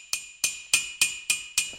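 In a trumpet-making workshop in Nuremberg, a steel hammer strikes the brass bell of a baroque natural trumpet on an anvil six times at a steady, even pace, driving it out to the desired diameter; each blow a bright metallic clang with a shimmering ring that fades quickly.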